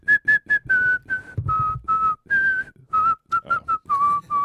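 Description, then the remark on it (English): Someone whistles a short tune, a quick run of clear, separate notes with small pitch shifts, some clipped and some held a little longer. No one talks. “I like whistling. I'm a big fan of whistling.”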